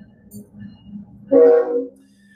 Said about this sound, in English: Trains going by.